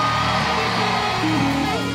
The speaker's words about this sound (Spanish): Alguien que esté vivo aquí grite el, amén más fuerte que haya gritado.